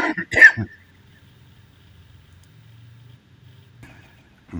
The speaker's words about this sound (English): Sorry about that. I had a cough. It was out of the blue.